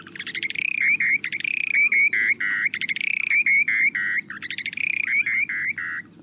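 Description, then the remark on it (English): A dowitcher's flight song, given during an airborne display flight: rapid, bubbling series of high, musical notes repeated in three bursts with brief pauses, loud and clear over a low, steady background hum, with no talking. The song can carry up to a quarter mile. “At the end of the glide, the birds suddenly fall through the air and then sometimes rise again for another round of musical airborne acrobatics.”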